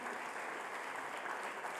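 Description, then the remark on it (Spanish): Audience applause welcoming those in attendance fills the whole clip, a dense, steady wash of many hands clapping with no breaks and no voices rising above it. “Que damos un fuerte aplauso.”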